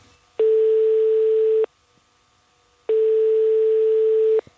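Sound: telephone ringing tone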